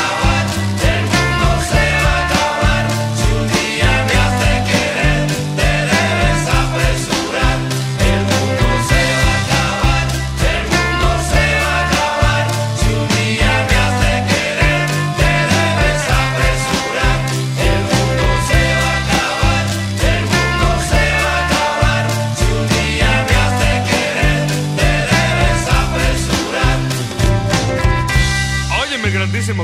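A loud, full-band Mexican rock song plays throughout, with driving drums, heavy bass and guitars in a steady, energetic groove and vocals woven into the mix.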